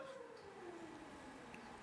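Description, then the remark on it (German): A siren wails steadily in the background, its single tone slowly sliding downward in pitch, faint but continuous against a quiet, low ambient hum. “Im Hintergrund heult eine Sirene für alle, die im Stream es nicht hören.”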